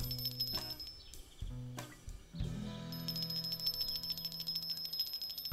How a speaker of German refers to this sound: Und während Max da gerade drüber nachdenkt, was er dort für Spielmöglichkeiten für die Kaninchen einbauen kann, klingelt es auf einmal an der Klingelleitung.